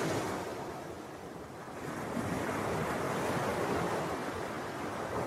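Ocean waves breaking on a shore in a steady, full wash of surf, swelling louder partway through, with a windy rush over the top and no voices.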